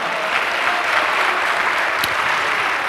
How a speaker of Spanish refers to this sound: ¿Cuánto le dan un aplauso al Señor, amado hermano?